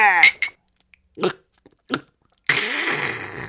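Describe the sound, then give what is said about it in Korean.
Glasses clink together in a quick, bright toast near the start, with short vocal sounds around it. A steady rushing noise follows, filling the rest of the moment. “앞으로 성공할 거니까 미리 땡기는 거지. 어? 뭐? 건배.”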